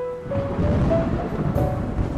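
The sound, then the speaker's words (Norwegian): Steady spring rainfall in Trondheim fills the scene with a dense, continuous hiss, fairly loud, while a faint tonal hum drifts underneath. No voices are heard. “Her er det vår når det ikke regner så mye.”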